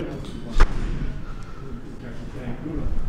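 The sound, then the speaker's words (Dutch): A single muffled 9 mm gunshot from an indoor shooting range, heard through two open doors, a brief sharp crack that stands out once against a low hum with faint voices in the background. “Als er twee deuren open zijn, dan kun je de knal horen ja, vanuit de schietstand.”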